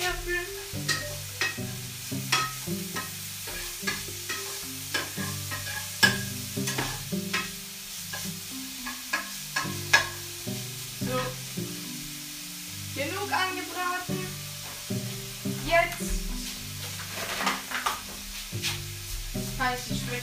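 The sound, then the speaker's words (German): Bacon sizzles and crackles steadily in a frying pan, with frequent sharp pops and occasional clatter of a utensil stirring, no talking. “Oh, Speck”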